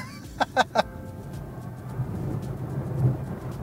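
A quiet electric car pulls away from a standstill on a closed circuit and accelerates to 100 km/h, its low road rumble swelling steadily inside the cabin after a few quick clicks at the start.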